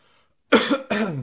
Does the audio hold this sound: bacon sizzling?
no